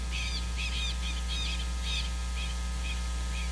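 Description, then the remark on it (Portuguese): A southern lapwing (quero-quero) gives a run of sharp, scratchy calls, several quick bursts in an uneven series, over a steady low background hum. “É, sentinela do Pampa, é. Quero, quero,”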